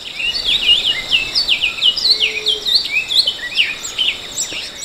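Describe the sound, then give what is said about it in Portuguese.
A thick-billed seed finch sings a long, loud song to mark its territory, an unbroken run of rapid, varied whistled and chirping notes, with no voices present. “Para demarcar seu território, canta alto e longamente. E ouça o canto.”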